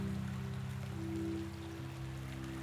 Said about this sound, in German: Und er nahm wahr, wie sich der Fluss immer mehr mit Wasser füllte. Vor der alten Mühle begann es zu plätschern und zu rauschen.